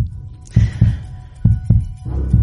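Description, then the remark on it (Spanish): A rapid heartbeat at 120 beats per minute thumps in paired lub-dub beats, two double pulses about every second, low with a steady throbbing hum underneath and no voices. “Esto que oyes, 120 pulsaciones por minuto, se refiere al beat rápido de la música o la taquicardia que puede producir el VIH.”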